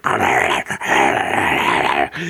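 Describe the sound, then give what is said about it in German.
A person growls and snarls in a rough, throaty voice, imitating aggressive creatures from a film that looked like a mix of dog and rat, played by ordinary dogs in costumes, sustained for about two seconds with a brief break in the middle. “dass das alles noch normale Hunde waren, die quasi so ein Kostüm umgehängt bekommen haben, aber es war so eine Mischung aus Hund und Ratte, so sah das quasi halt eben aus.”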